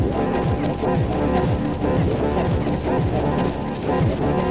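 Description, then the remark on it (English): A loud, dense wash of echoes from a Chronoblob 2 delay pedal, with its wet/dry control from the Dub Matrix E channel turned off, piles up into a messy, smeared texture, with repeating swooping pitch bends rising and falling throughout. No one speaks. “If I turn that off, watch how messy this gets.”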